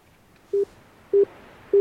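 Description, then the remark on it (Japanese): Three short, steady telephone tones beep at an even pace, clear over a quiet background, with no one speaking, as a phone call is placed to a nearby Christian bookstore. “えーあのこの近くにですねクリスチャンのね書店があるんですよね、うん、ちょっとねそこにあのクリスマスといえばみたいな行ってみますかはいちょっと電話してみたいと思いますはい”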